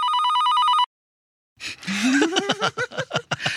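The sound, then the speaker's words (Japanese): A single steady electronic telephone ring, before an answering machine message, sounds loud for under a second, then cuts off to silence before people break into rhythmic laughter. “コールも変わってませんね。”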